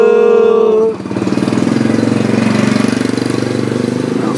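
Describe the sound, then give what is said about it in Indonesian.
A motorcycle passing by, its engine rumbling loudly, opening with a steady high whine before settling into a rapid, pulsing putter that carries on throughout. “motor lewat lagi dong.”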